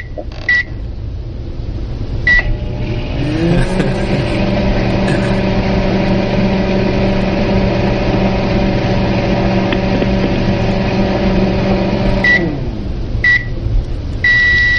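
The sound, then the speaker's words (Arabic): A microwave oven heating food hums steadily for about nine seconds, its low drone rising as it starts and winding down at the end, with short electronic beeps before it starts and after it stops. “ايوه تجهز آه، تسخين الاكل ده ميكروويف ميكروويف؟”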